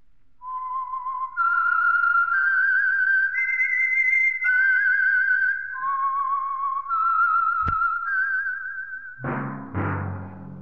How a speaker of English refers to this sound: That whistle is your signal for the Signal Oil Program, the Whistler.